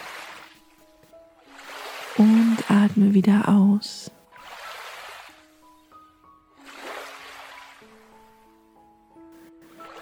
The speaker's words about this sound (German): Du kannst spüren, wie diese wundervolle Bewegung des Wassers im Einklang mit deinem eigenen Atem fließt. Das Wasser kommt langsam auf dich zu, verweilt einen Moment und zieht sich dann wieder zurück.